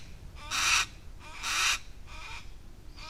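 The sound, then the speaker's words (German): A golden eagle calls in a steady series of short, harsh, shrill cries, roughly one per second, the first two loudest and the later ones fainter, over a low background rumble. “Weil das kann ganz schön nervig sein, das Rufen. Gerade das zum Beispiel von unserem Steinadler da hinten.”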